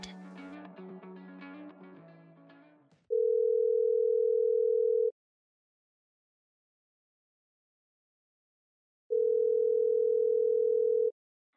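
A few seconds of music cut off, followed by two long, steady electronic telephone ring tones separated by a pause of silence before the call is answered, loud and clear with no one talking.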